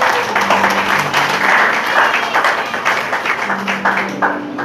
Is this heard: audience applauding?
yes